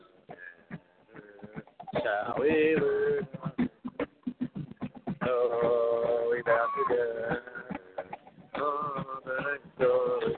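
A person sings in the background in a few sustained, wavering melodic phrases separated by short breaks, fairly prominent but with a muffled, slightly tinny quality.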